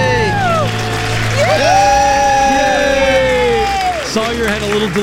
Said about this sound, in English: delayed reaction, but now she she's did. she's kicking and clapping and she's excited.